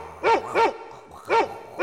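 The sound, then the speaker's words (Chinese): In a children's game, a mother dog barks four times in quick pairs, loud, mid-pitched yelps with a tonal ring, separated by short pauses and with no talking. “不过想想，就像我害怕狗妈妈一样，小狗刚刚应该也很怕我吧？”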